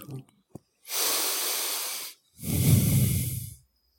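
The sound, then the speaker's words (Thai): Two long breaths rush through the nose during a breathing exercise, the second a fuller, rougher exhale, each lasting over a second with a short pause between and no talking. “ตอนนี้เรามันแบบพวกมืออาชีพ มืออาชีพแล้วหายใจเข้าเป็นคู่เดียวหายใจเข้า เนี่ยยังให้ออกลมด้วย”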